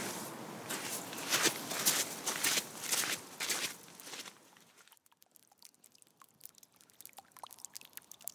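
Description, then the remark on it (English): Steady, crunching footsteps walk along a path toward Loughrigg Cavern in the late afternoon at an even pace for about five seconds, then fade into a quieter stretch of sparse, faint ticks and taps. No one speaks. “I'd be content to go along towards Loughrigg Cavern.”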